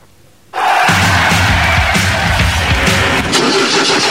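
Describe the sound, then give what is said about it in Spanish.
After a brief hush, a diesel engine suddenly fires up and settles into a loud, steady rumble with a gritty low throb that continues to the end. “¿Y arranca o no arranca? Siempre arranca con Bujía Gescher para motores diésel.”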